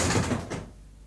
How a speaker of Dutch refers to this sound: Ik haalde diep adem, rukte de deur open.